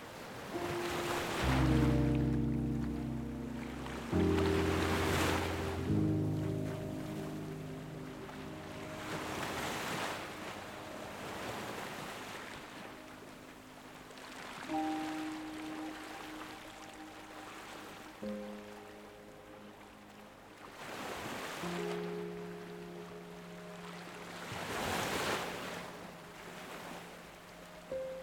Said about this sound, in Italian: Ora ti invito a visualizzare le onde del mare.